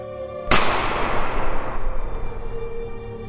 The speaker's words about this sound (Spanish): Ella vive cerca. Y de hecho no alcanza a cerrar la puerta. Cuando tres casas más allá, escucha el disparo.